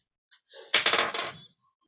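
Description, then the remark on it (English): A six-sided die is rolled: a couple of light clicks, then a brief burst of rapid, bright clattering as it tumbles across a hard surface before stopping. No one speaks. “So there is six options, and you got a dice. Yeah. Six sides, not twenty.”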